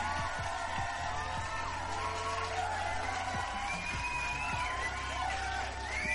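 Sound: audience applause and cheering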